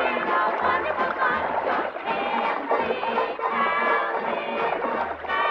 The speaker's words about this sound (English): Oh, it's the bubble machine. Turn off the bubble machine, please.